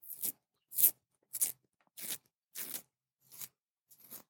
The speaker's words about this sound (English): I've been bothering him, capturing sounds, uh, like him, kind of his pencil sketching against the wall. Paint mixing sharpening a pencil,